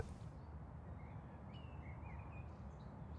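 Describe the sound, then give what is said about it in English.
Faint birdsong on a summer day along a country lane lined with trees and fields: a few thin whistled chirps rising and falling over a steady outdoor rumble, with no one speaking. “The sound of birdsong drifted towards Peter, making him relax more and more with each leisurely step.”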